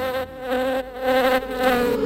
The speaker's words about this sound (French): Elle vient avec ses copines chercher le miel. attention, il y a la guêpe.